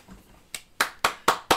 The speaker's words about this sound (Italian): Secondo applauso, sì.